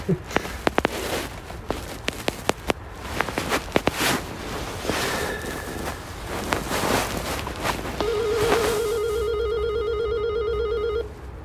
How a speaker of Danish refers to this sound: det, det er en ret tung dør. Øh, og der er, heller ikke, der er ikke rigtig nogen af de sådan... Nogle af der knapper på dem så, man, sådan, så de åbner. Man hører låsen åbne nu.